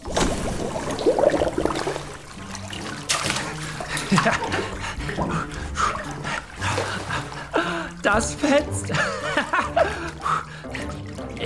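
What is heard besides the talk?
splashing water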